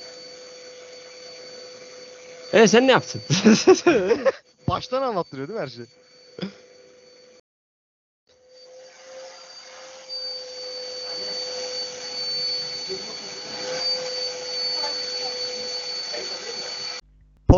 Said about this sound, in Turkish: annesinin başlattığı süpürge faciasını dinlememeniz için akrepler ile ilgili ilginç bilgiler belgeselinden ufak bir kesit paylaşıyoruz.